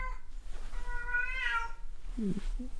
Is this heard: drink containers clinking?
no